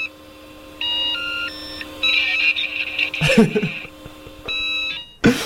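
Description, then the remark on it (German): Dial-up modem handshake played from the modem's external speaker, recorded with a microphone held beside it: stepped electronic tones and warbling bleeps, a burst of harsh static-like screeching in the middle, then more tones and a final noisy crackle. “Wir können doch noch mal deine Modem-Geräusche spielen”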